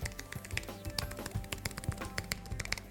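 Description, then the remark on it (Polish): Rapid, irregular key clicks from typing on a low-profile Apple Bluetooth keyboard, fairly crisp, a steady flurry of light taps over three seconds with no voices. “Mam tu na przykład klawiaturę Apple'a, taką bluetoothową.”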